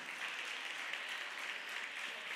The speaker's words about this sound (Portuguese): Você pode dar um aplauso melhor?